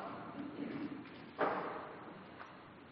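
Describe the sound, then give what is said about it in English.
Soft, continuous papery rustling of many pages as pew Bibles are opened to page 498 of the Old Testament, Psalm 19, with one sharper flip or thump partway through and a fainter one near the end, no voices. “I hear rustling of pages.”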